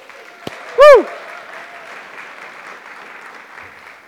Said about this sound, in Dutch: Maar laten we eerst de kinderen alvast een fantastisch applaus geven.